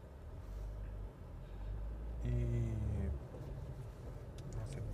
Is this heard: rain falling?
no